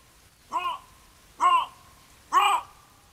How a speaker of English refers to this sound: That sounds like fucking bobcats throwing up.